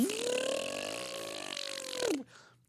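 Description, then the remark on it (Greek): A voice imitates a washing machine running: one loud, sustained droning hum, rising in pitch, holding steady for about two seconds, then dropping away into quiet. “αυτόν ακριβώ τον ήχο είναι το πλυντήριό μου.”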